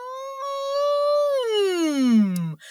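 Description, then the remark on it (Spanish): A vocal siren warm-up, one of two or three done quickly before a recording session: one voice holds a steady, fairly high hum-like tone, then glides smoothly down in pitch to a low note before cutting off. “me hago dos o tres sirenas”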